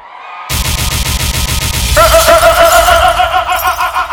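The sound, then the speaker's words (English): A large audience at a Notting Hill Carnival 2024 show suddenly erupts into loud, sustained screaming together on a count of three after a brief quiet moment, so the models backstage can hear, building in intensity halfway through into a dense, shrill roar of many voices that continues to the end. “After three, I want to hear everybody scream so all the models can hear that.”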